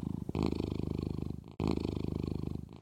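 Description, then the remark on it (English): A cat purrs in two steady, rumbling bursts with a brief pause between them, each a continuous low vibrating drone with a rapid pulsing rhythm. “And the cat in the trunk, Tom Tom, purred in agreement.”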